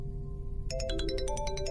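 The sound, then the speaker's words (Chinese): A mobile phone ringtone starts abruptly for an incoming call, a bright electronic melody of rapid repeating chirpy tones over a low steady background hum, fairly loud and with no one talking. “我的手机突然响了，电话显示是张红打来的。”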